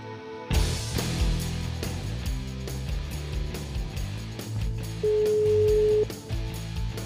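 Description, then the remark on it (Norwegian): Over a busy music bed, a single steady telephone ringing tone sounds for about a second near the end, clear and fairly loud against the backing track. “Du, jeg sitter her, jeg ringer fra podkasten.”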